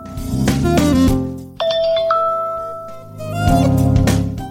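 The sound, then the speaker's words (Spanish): A bright electronic iPhone "Chimes" ringtone of layered chiming bell tones rings out clearly, tinkling notes ringing and sustaining before fading, with other melodic tones playing before and after. “Las campanillas se escuchan vaquitas.”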